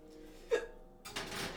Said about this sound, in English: Oh god, I'm getting the hiccups.